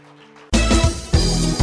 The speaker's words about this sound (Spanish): Denle un aplauso a Dios.